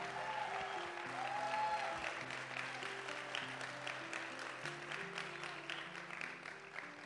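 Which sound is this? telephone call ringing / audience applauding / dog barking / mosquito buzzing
audience applauding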